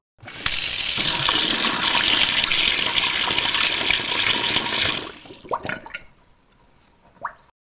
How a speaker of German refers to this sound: Laufender und dann abgedrehter Wasserhahn.